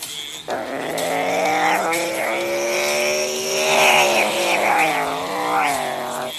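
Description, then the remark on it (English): Race car engines of ten cars roar at the green flag on lap 19 in a loud, continuous drone for several seconds, their buzzing pitch rising and falling in waves as the cars accelerate. “Race is going on.”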